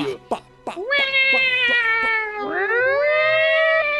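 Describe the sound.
A few quick clicks, then a person loudly imitates a cat with a long, drawn-out, wavering meow that dips and rises again, sustained for several seconds.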